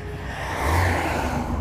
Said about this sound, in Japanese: いやとりあえずですね、はあ、ちょっと車通りは多いんですけれども